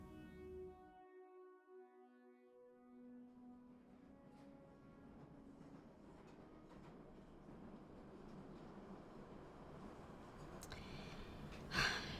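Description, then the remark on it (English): A train carriage rumbles steadily and continuously, a dense low roar that builds slightly over time, with a fading tonal hum at the start and a brief sharp clatter near the end. “Have you noticed that no one else has got on this train?”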